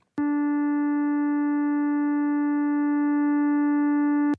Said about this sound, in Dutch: En die vragen mensen om te luisteren naar het geluid van trillende sterren. Er zijn sterren die trillen, dat is een gong zeg maar. Ook die trillingen heeft men omgezet in eh, geluid en eh, dat klinkt zo.